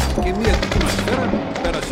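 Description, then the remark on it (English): Sustained, rapid gunfire as a police officer opens fire with his service weapon beside a dirt road: a dense barrage of sharp cracking shots crowding into a loud, continuous clatter, with faint voices underneath. “He reaches for his service weapon and then opens fire bullets fly.”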